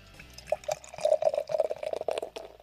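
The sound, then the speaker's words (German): Green-hop pilsner beer glugs and splashes steadily into a glass, a continuous pour with bubbly gurgling that rises and falls over a couple of seconds. “So, also jetzt haben wir erstmal dieses wunderschöne Pilz hier im Glas und das ist ein Grünhopfenpilz.”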